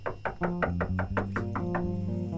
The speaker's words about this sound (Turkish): Bir gün altınlarını sayarken kapı çalmış.